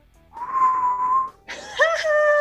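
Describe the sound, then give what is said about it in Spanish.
Two breathy, whistling exhales blown out through the mouth with slightly parted lips during a breathing exercise. The first holds a steady airy tone; the second is louder and hissier, its pitch wavering and breaking. “Claro, aquí dice, explicándolo un poco mejor, dice, deja que tus labios se separen ligeramente y haz un sonido silbante al exhalar por la boca”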